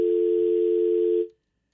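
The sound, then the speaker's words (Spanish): After a caller's phone call to a radio show drops, a steady, unbroken telephone dial tone hums at a single mid-low pitch for just over a second, then cuts off abruptly into silence. “Ya se cayó.”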